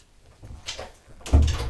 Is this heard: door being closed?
yes